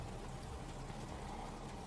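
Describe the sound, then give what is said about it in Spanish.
Steady rain falls without a break during a thunderstorm, a soft continuous hiss of drops spread evenly through the moment, fairly quiet and with no voices or thunder standing out. “Dice que, ahorita iba a aflojar, que no iba a llover más.”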